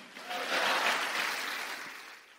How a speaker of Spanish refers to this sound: Dele palmas al Señor, pues a su nombre.